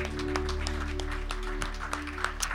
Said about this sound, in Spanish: Gracias, Señor. démosle un fuerte aplauso al Señor.